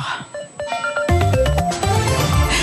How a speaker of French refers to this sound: Et vous entendez les cloches de Saint-Jean Il est 11h.